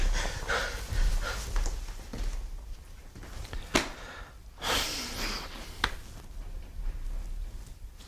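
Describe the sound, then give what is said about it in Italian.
Heavy panting with ragged gasps and snorting breaths, uneven and labored, with a couple of sharp catches in between, from a person who cannot breathe. “Anche adesso, vedi, non respiro, non respiro,”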